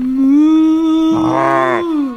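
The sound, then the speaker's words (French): A person gives a long, drawn-out mournful moo, imitating a sad cow. The pitch holds steady, and a second, lower, rougher voice joins briefly in the middle before the moo fades out. “Tu veux qu'on fasse la vache triste pour toi”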